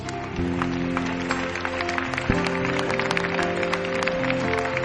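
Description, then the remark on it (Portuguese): An audience applauds the name of Jesus steadily and densely throughout, a crowd of many hands clapping at once, while a sustained keyboard chord holds underneath and shifts to a new chord midway. “Você pode aplaudir o nome de Jesus?”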